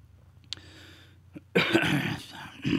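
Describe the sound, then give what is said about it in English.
A harsh, raspy cough from a lingering illness bursts out after a few faint clicks, followed by a second rough cough; no talking. “and I apologize for the cough, folks.”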